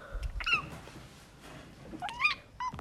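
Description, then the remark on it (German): A cat meows twice, two clear rising-and-falling calls about a second and a half apart, moderately loud against a quiet background. “Und wenn du Showdown mehr magst, zweimal Miau.”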